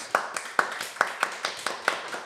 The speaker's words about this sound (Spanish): Así que me ayudan, por favor, a recibir con un fuerte aplauso